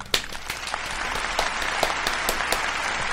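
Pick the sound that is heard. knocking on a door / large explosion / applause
applause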